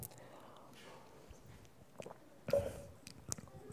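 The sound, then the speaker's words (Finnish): A quiet sip of water: soft mouth and swallowing noises with a couple of small wet clicks and a gulp, over a faint background hiss, with no talking. “Käytännön ihminen, äh, juon hieman vettä.”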